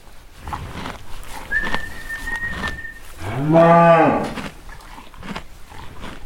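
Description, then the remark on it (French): A single loud, drawn-out moo from a Bretonne Pie Noir cow of a small farm herd, lasting under a second, against quiet outdoor background noise with a thin, high whistling tone a little earlier. “Et si on revient sur la viande, on a également un petit cheptel de bretonne pinoire.”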